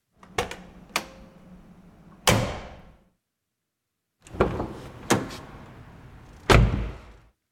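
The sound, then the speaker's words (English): Two separate takes of a car door slamming, the first from an air-cooled Porsche, each with a couple of sharp latch clicks followed by a loud, heavy slam, separated by a second of silence. No one speaks. “So now, number three, now I'm going to play you another two sounds slamming car doors.”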